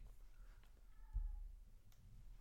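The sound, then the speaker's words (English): A faint, drawn-out cat meow from outside in spring, quiet over low background rumble, with a soft thump partway through. “the cats are getting frisky.”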